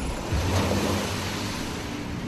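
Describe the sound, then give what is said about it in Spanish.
A steady, full-bodied roar of ocean waves, loud, with a deep low rumble under broad hissing wash that holds constant with no voices. “Pero si solo escuchaste el rugido del mar”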